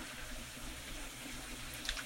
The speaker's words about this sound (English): My favorite place to do this exercise is when I'm filling up my water bottle because it takes a while at a water fountain sometimes. Well, I work in a public school a lot. And it takes a long time for that water to get inside that water bottle.